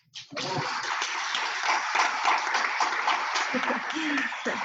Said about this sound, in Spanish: Damos un aplauso